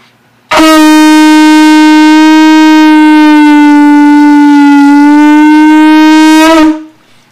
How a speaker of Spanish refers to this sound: Esas tres palabras al juntarlas a tetcocoli quiere decir piedra de agua retorcida. Y el sonido de la tetcocoli es el siguiente.